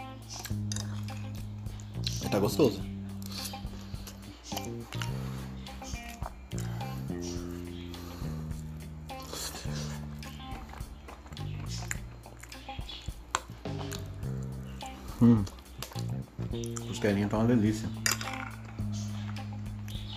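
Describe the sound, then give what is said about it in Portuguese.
Clinks and scrapes of cutlery against a plate, recurring irregularly as someone eats rice, beans and ribs, with a steady low hum underneath and occasional louder clatters. “Tô comendo arroz, feijão e costela.”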